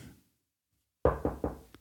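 Three quick knocks on a wooden surface, fairly loud, followed by a faint fourth tap, after a brief stretch of quiet.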